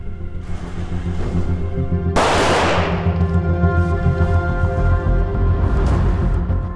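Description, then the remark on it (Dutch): A single sharp pistol shot at a shooting range during police firearms training, fired from the low ready position, cracks out midway, its bright blast fading over about a second, above a steady low droning hum that continues throughout with no voices. “Reageren met één schot.”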